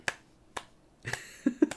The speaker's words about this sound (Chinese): 为什么要拍手？因为这张专辑全亚洲卖了一百五十万张